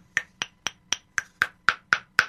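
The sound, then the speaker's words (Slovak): A small pebble, picked up along the way, tapped against a cupped palm: nine sharp, evenly paced clicks, each with a short hollow ring that grows more pronounced toward the end. How the palm is opened forms a resonator that tunes the pebble. No one speaks. “To som si vyvinul vlastne v štúdiu, že, že, že do dlane dám ten kamienok.”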